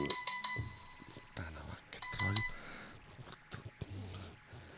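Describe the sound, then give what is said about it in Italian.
A phone alarm chimes in short, high electronic tones, a quick cluster at the start and another partway through, while a person talks over it. “Come fa a esserci ancora una sveglia puntata adesso?”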